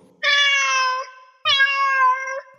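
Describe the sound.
A person imitates a cat with two long, drawn-out meows in a row, loud, separated by a brief pause, with no other talking.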